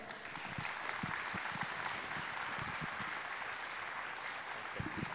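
A crowd claps steadily, a dense, even patter of many hands with scattered sharper claps standing out, sustained at a moderate level throughout without any voices.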